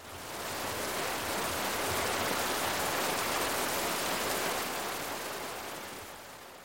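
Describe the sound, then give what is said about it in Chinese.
A steady, dense hiss of heavy rain pours without a break, a broad wash of noise that swells slightly and then eases toward the end, with no voices present. “雨下得越来越大。”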